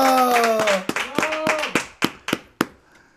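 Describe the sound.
Sharp hand claps of applause ring out in a steady, fairly quick rhythm, around ten in all, with voices talking and laughing over the first half before the clapping finishes on its own.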